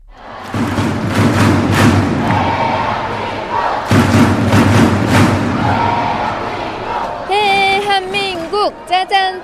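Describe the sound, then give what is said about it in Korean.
A large indoor crowd of Korean fans chants and cheers loudly in rhythmic bursts at the 2014 World League men's volleyball match between Korea and the Czech Republic at Suwon Indoor Gymnasium, with heavy thumping beats like drums or thundersticks, ending with a shrill whistle or horn-like tones. “짠짠짠 이 힘찬 응원 소리가 들리는데요.”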